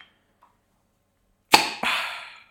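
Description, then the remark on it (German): A cold drink bottle is opened on a 35-degree day: a sharp pop and rush of fizzing hiss, then a second quick release with more hiss that fades after about a second, with no talking. “Ah, immer wieder schön, das zu hören, oder? Boah, da dampft sogar so schön.”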